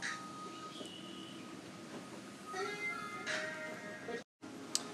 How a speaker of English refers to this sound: Okay, sorry about that. You having these interruptions because I don't know what's up with these cats. They are not attacking me, but they are causing mischief and mayhem to no end.